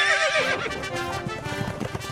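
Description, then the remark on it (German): A horse whinnies loudly at the start, followed by the rapid, rhythmic thud of hooves galloping as two knights on horseback charge at each other with wooden lances in a jousting tournament, with no voices present. “Dort stürmten beim Lanzenstechen zwei Ritter zu Pferd mit Holzlanzen aufeinander zu und versuchten, den anderen aus dem Sattel zu stoßen.”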